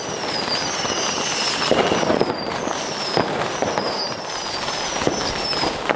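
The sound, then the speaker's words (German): Fireworks for the Swiss National Day on 1 August in Switzerland crackle and pop continuously, with sharp bursts scattered over a dense rumbling background and repeated high whistling streaks as rockets rise, fairly loud with no voices. “Etwas darf da natürlich auf keinen Fall fehlen. Das Feuerwerk.”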